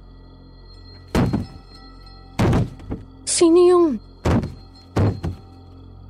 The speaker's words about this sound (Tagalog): Ba't parang sa labas mismo ng kwarto natin ang gagaling yung katok?